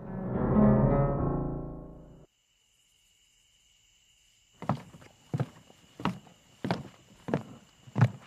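After a brief low tonal swell and a pause, about six steady footsteps land at an even walking pace over a constant high insect-like drone, a person walking down from the second floor of a guest lodging past room 207.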